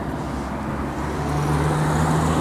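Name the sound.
passing cars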